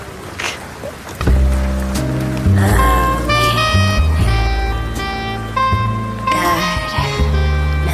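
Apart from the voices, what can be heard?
rain ambience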